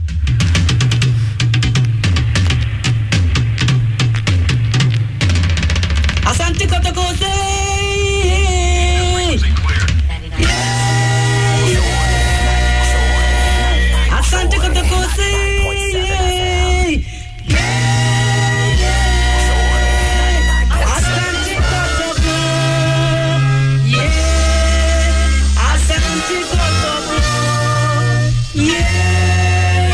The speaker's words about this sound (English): Yes, this is the anthem. The anthem.